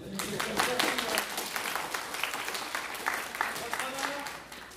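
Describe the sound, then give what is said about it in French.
An audience applauds steadily for several seconds to reward an audience member's very good question, a dense wash of many hands clapping at once with a few murmuring voices mixed in underneath. “Très bonne question, on peut l'applaudir.”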